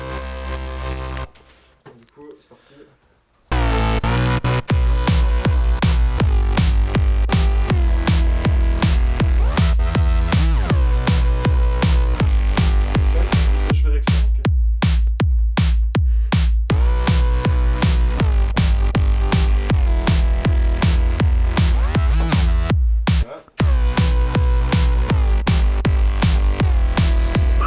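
A loud synth track where the synth's volume dips slightly with every kick drum hit through sidechain ducking, giving a steady rhythmic pumping over a four-on-the-floor beat, with a few brief dropouts along the way.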